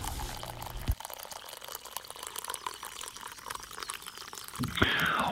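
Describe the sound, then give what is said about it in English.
Hot coffee pours steadily into a cup, a soft continuous gurgling trickle that brightens and rises in pitch near the end as the cup fills. “So pour yourself a hot cup and enjoy the show.”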